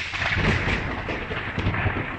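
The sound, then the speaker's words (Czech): A steady, rolling rumble of thunder fills the whole stretch, loud, with deep low booms surging and fading beneath a broad crackling wash. No one speaks. “Stačí od zablesknutí počítat sekundy do zaznění hromu”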